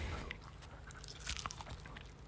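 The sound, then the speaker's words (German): Crunching and wet chewing of crispy barbecue-style, oven-baked chicken wings right into the microphone, a steady run of crackly bites and smacking with no talking. “Die kannst du doch noch gar nicht knuspern.”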